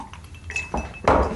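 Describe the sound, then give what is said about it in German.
Glasses clink together in a toast, a couple of bright ringing taps followed by a louder, fuller clink near the end, with a faint sustained ring lingering between them. “So, Markus. Prost. Prost. Auf Cheers.”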